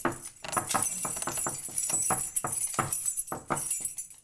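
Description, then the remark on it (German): A bunch of keys jangles at an apartment door in a quick, irregular series of bright metallic rattles and clinks lasting several seconds, with soft knocks underneath, while someone enters over a creaking old wooden floor; nobody speaks. “Wir gehen zur Tür rein, ein quietschender alter Holzboden, ein Schlüsselbund und die Wohnungstür ist hier.”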